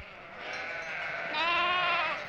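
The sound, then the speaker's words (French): A shepherd's flock of ewes bleat together in a continuous chorus of overlapping, wavering cries, swelling louder toward the middle before easing off, with no voices. “C'est le troupeau de son père, mais il les connaît toutes par leur nom.”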